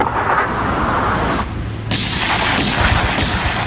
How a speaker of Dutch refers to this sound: Op een nacht volle ploffing, Ontploffingen, vuurgevecht op de stelling van de Hollanders.